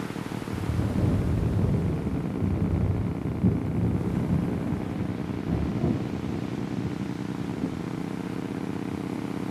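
A steady, heavy roar of storm wind at sea buffets the boat, a dense low rumble with gusting swells that never lets up across the whole stretch, loud with no voices.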